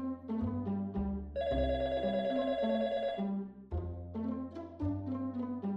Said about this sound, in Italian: Il telefono squilla a casa di Arturo e Arturo risponde.